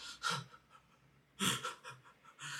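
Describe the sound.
A voice imitates exaggerated crying sobs: a few loud, breathy, gasping bursts, spaced irregularly with short pauses between them.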